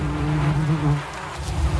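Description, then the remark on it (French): A steady, droning hum of honeybees buzzing at beehives in front of a bee house, where workers are checking the health of the hives, the pitch wavering slightly as the swarm moves, with no voices and a faint rumble underneath. “Donc là nous sommes devant la maison de l'abeille du coup.”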